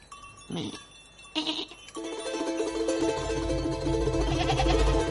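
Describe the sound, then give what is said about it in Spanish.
A goat or sheep bleats in short wavering calls, two brief cries followed by a longer drawn-out bleat, over a low rumbling outdoor background with no talking. “mira, una cabra o una oveja.”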